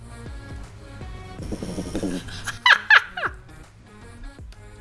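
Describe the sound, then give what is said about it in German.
A pet snores loudly, a raspy, buzzing breath followed by a couple of sharper, squeaky snorts, then quieter wheezy breathing. No one speaks. “Aber es bewegt sich nicht, wenn die schnarcht, nur wenn ich spreche.”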